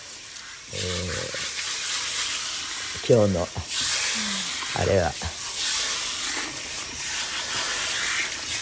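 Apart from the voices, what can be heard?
running water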